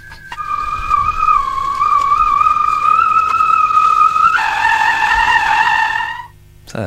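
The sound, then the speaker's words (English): A speeding vehicle's long, high tire screech holds a steady whining pitch for several seconds, then shifts to a harsher, lower squeal before cutting off abruptly. No one speaks. “speeding vehicle. So that's three.”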